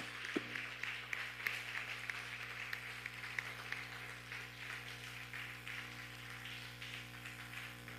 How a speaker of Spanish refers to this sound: Un fuerte aplauso.